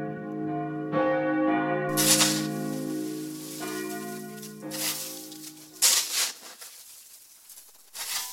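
Several church bells of the St. Nikolai church in Hannover-Limmer ring together in a sustained, overlapping peal, with new strikes layering over lingering tones, heard outdoors with some bursts of wind or rustling noise.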